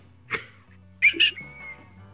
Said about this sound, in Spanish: Perdón por chiflar.